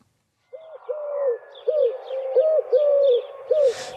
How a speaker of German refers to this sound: Jetzt die drei Töne von der Türkentaube.